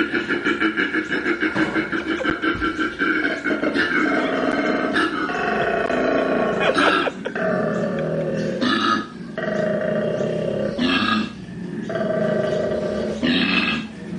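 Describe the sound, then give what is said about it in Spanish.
A male koala bellows during mating in a continuous, rasping series of deep snoring inhalations and belching, growl-like exhalations, loud and rhythmic throughout, with no talking. “Os ponéis como el, el, koala en, momento de apareamiento.”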